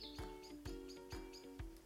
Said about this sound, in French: Vous entendez, c'est le chant des oiseaux. Et oui, on est le printemps. Et ça fait trop du bien.